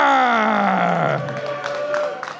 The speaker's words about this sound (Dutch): Mag ik nog een warm applaus voor onze andere brouwers, dames en heren?